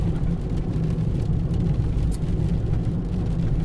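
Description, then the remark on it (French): Heavy trucks rumble past on a badly worn road, a deep, steady engine and tire drone that stays loud and constant throughout, with no voices. “elle est bien pourrie par contre cette route par là. avec tous les camions qui passent.”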